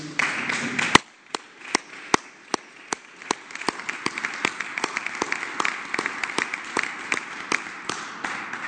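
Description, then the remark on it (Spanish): A crowd applauds steadily for business owners who gave alcohol to the health sector, with a dense wash of clapping and sharp individual claps standing out throughout. No one speaks. “Un aplauso para esos empresarios.”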